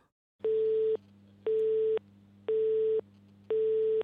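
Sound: telephone busy signal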